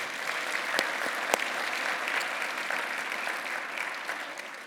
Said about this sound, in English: Well, we've already had church, so we can go home after that great anthem, right? I know some of you wanted to stand up, and some of you didn't want to, weren't sure. So let's just give them another hand of applause for a great job. Thank you.